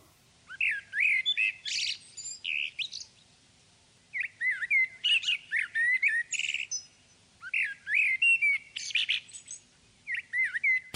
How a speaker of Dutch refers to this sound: volgens mij is dat een merel. Dat mhm. hoort je vaak. Ja. Is de merel ook een goede zanger? Ja, een van de betere, absoluut.